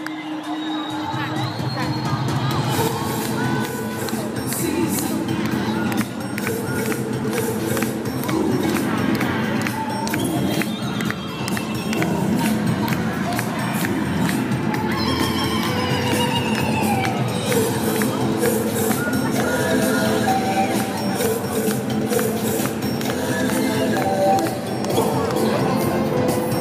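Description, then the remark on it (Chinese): A lively crowd at a theme park float parade, recorded live on an afternoon, cheers and chatters over loud, festive music, the dense din holding steady and full for the whole stretch. “想与你分享花车游行时我录下的现场的声音，请你闭起眼睛，和我一起回到那个令人热泪盈眶的午后时光。”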